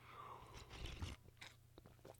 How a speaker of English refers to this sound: Hold on, I'm going to take another sip of coffee real quick.